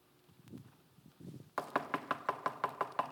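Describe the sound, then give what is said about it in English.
A steady run of about ten sharp knocks on a door, evenly spaced and fairly loud, following a moment of faint low murmuring. “and he's knocking to his, his children.”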